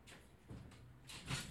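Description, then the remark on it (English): A heavy door is pushed closed, a low scraping rumble building to a dull thud and brief rattle, with no voices over it. “I think we need to shut this door a little bit more.”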